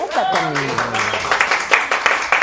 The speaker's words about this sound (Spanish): Muy bien. Aplausos. Muy bien, por Carla.